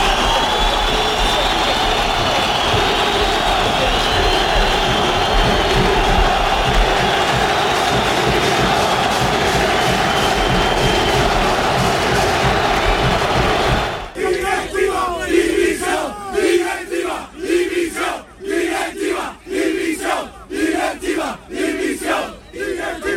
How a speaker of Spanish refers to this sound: el grito de directiva, división, directiva, división, se fueron anoche los aficionados del Sánchez Pijuán y noche también desagradable.